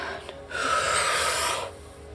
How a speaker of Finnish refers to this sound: Aina on hengitys. Hengitä syvään.